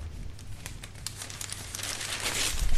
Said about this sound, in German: So, ich habe gewürfelt und die Zahl lautet 2. 2. Da muss ich ja nicht so weit blättern, Gott sei Dank.